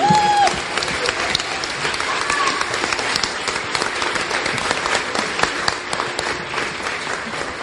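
Sustained audience applause, a dense steady wash of many hands clapping for several seconds at an even, fairly loud level, with a brief whistle near the start.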